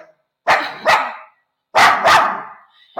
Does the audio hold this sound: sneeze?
no